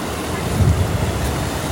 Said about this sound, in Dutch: Het is ook, het is ook niet te omschrijven hè, wat we nu hier zien. We, lopen langs een eh, heel snel stromend riviertje. Met eh, over het algemeen hele groene weiden.